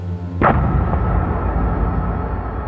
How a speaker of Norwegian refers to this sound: Så ble det en veldig eksplosjon om bord.